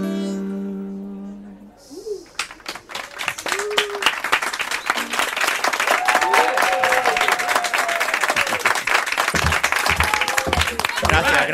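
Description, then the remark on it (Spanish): A music passage ends and loud, sustained audience applause breaks out, dense clapping continuing for several seconds, with scattered cheers and voices mixed in. “Gracias, gracias, entregado público.”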